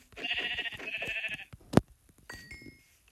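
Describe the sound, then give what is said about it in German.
A sheep lets out a long, wavering bleat, followed by a sharp knock and then a shorter, quieter bleat, with no one talking. “Und hier das Schaf.”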